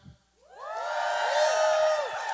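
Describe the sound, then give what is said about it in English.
A church audience bursts into loud cheering and shouting, many voices whooping and rising together after a brief pause, then holding at a full, sustained roar until the end. “Okay that intensity, but I'm going to need you to shout these, these dads down.”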